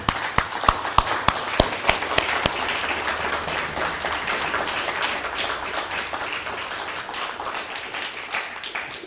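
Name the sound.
audience applause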